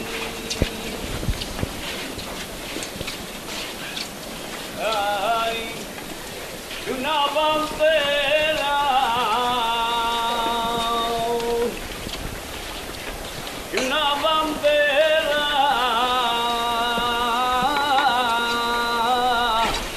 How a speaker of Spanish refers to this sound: Y suena otra saeta desde la calle Alfonso XII.